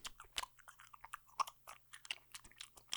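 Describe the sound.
A person mimics a dog chewing food with their mouth, making a quick, irregular run of wet smacking and crunching clicks, fairly quiet, with no words spoken.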